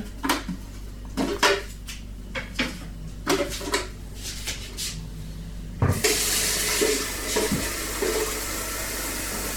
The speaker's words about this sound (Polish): Odkamienimy go. Najpierw nalewam do wiaderka wodę.